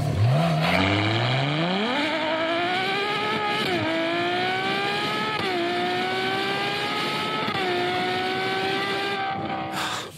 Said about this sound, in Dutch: En straks hoor je ook een rijimpressie in de Ferrari 812, 812 superfast.